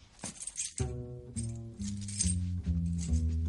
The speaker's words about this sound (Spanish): Dan se saca unas llaves del bolsillo.